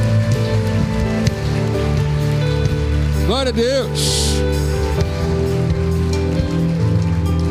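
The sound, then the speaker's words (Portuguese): A crowd applauds steadily and loudly throughout, a dense, unbroken clatter of clapping over sustained musical tones, with a voice briefly calling out partway through. “Se você vai aplaudir, dê o seu melhor.”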